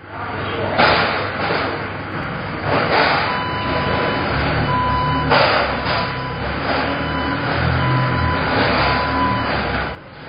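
At a liquor wholesale business, a machine continuously lifts and moves boxes of liquor bottles: a steady, loud mechanical rumble broken by several sharp clanks and thuds, with faint intermittent high beeps like a reversing alarm in the background.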